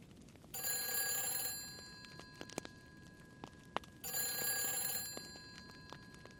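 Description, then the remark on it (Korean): A telephone bell rings downstairs in two bursts of about a second and a half each, separated by a pause, with a bright metallic jangle and a few faint clicks. “아래층에서 전화벨이 울렸다.”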